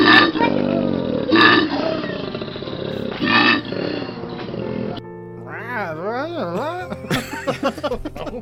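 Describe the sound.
A voice imitates a koala bear's call with rough, snoring, grunting bellows in repeated pulses, then shifts into higher wavering, swooping squeals and whines, loud.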